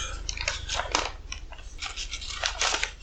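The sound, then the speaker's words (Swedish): Five paper letters being leafed through, a run of crisp rustles and crinkles in uneven bursts, with no one talking. “Jag bläddrar i dem.”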